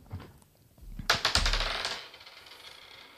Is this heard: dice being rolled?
yes